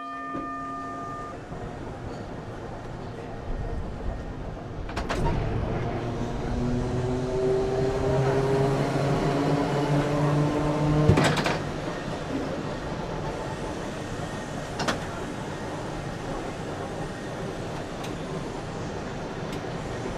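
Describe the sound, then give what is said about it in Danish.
An old tram at a tramway museum rolls along its rails, with a steady rumbling hum, rising electric motor whine, and sharp metallic clacks as the wheels cross rail joints, with no talking. “Inden vi forlader Sporvejsmuseet, synes jeg lige, du skal have lidt af de karakteristiske lyde, som os, der har vokset op med sporene, kan huske fra barndommen.”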